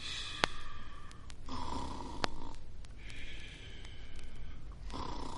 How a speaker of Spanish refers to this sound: ¿Quién estará roncando tan cerca? ¡Es el ogro!